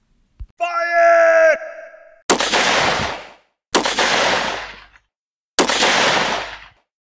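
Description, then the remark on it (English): A sharp click and a brief high, droning whine of an enemy bullet buzzing past at Shiloh's Hornet's Nest, followed by three loud, booming gunshots spaced a second or two apart, each trailing off in a rushing echo. “But little did they know, the meaning was due to the buzzing sound of the enemy's bullets.”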